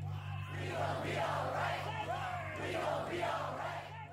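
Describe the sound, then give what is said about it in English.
A large outdoor protest crowd in downtown Los Angeles in 2016, protesting police shootings, chants together in loud, rhythmic swells, many voices rising and falling in unison over a steady low hum, with no single speaker standing out. “This is … as heard in 2016 in downtown LA during the protests following the police shootings of Alton Sterling and Philando Castile.”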